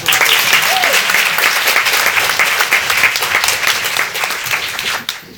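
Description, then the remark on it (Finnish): Loud, steady applause from an audience, a dense wash of many hands clapping that holds strong for about five seconds before tapering off abruptly at the end. “Mutta annetaan pienet aplodit väliä”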